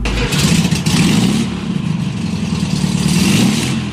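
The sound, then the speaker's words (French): The engine of a legendary Volkswagen car revs loudly, its pitch rising and falling over a few seconds with a rough, clattery mechanical rumble and no voices. “Et on referme ce journal sur une note nostalgique, la fin d'une voiture de légende, hein, qui marque aussi ici la fin d'une époque. Une voiture que l'on entend en ce moment, une époque en tout cas qui aura duré plus de sept décennies.”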